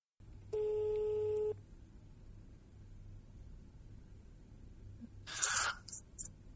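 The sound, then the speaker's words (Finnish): A single electronic telephone ringing tone sounds for about a second over a quiet, hissy line, followed by silence and then a short burst of crackling noise near the end. “mutta nyt sitten ei muuta kuin puhelin kuumaksi ja käydään vähän läpi pelaajien tunnelmia tähän kohtaan.”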